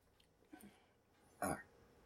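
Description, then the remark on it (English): A single short, abrupt cough bursts out of an otherwise quiet background, soft overall, preceded by a faint throaty sound; no one speaks. “Just wanted to pause you for the cough.”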